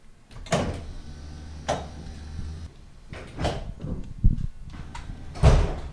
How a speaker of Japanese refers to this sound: お待たせいたしましたドアを閉めます